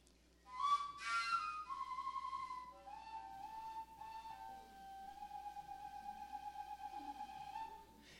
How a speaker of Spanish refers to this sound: Para los que nos escuchan en, radio, es un instrumento de, Siberia, originalmente eh, fabricado en madera. Este es una adaptación en PVC, en eh, una manguera de plástica, y es una gran flautota que trabaja con armónicos